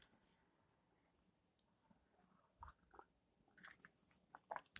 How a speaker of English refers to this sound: Sorry, guys, I had to take a sip of this lemon tea.